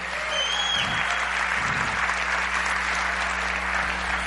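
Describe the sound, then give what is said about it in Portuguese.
Sustained applause from a conference audience for musicians, a dense, steady wash of clapping that holds at an even level throughout, with a faint low hum underneath and no voices standing out. “Mais uma salva de palmas para esses músicos aqui.”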